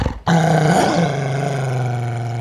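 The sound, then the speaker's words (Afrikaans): A wolf growls loudly and continuously, a deep, rumbling snarl that starts abruptly after a brief moment and holds steady, with no voices. It is the wolf in Little Red Riding Hood leaping out of bed and charging at her. “Hy ruk ouma se nagrok en slaapmus af, spring uit die bed en storm op Rooikappie af terwyl hy grom.”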